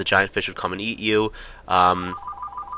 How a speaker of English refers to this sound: that's my phone going off. I don't know if you can hear that.